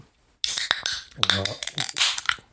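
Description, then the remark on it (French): A sharp pop breaks the silence as a beer can cracks open, followed by a bright fizzing hiss and small metallic clicks, with a brief voiced sound partway through. “Ah, ça a pété, là.”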